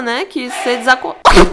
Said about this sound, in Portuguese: Agora, depois desse espirro que quase matou a gente do coração aqui. Nossa, eu espero que tenha dado pra ouvir.